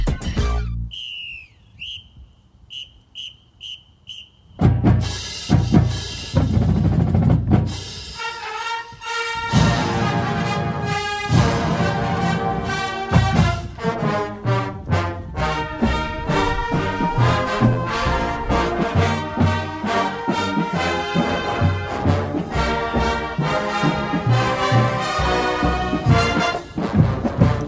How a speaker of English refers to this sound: thrilling every time I hear that. It makes me so happy, the Missouri Marching Band.